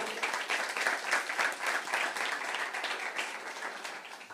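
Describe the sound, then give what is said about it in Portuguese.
A church audience applauds strongly for the Lord during a morning service, dense overlapping claps forming a sustained wash of sound with slight swells, continuing throughout at an even loudness. “Você pode dar um aplauso forte para o Senhor.”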